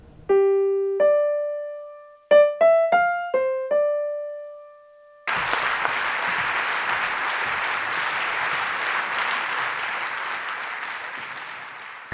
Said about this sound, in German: Vielen Dank für den sehr freundlichen Applaus.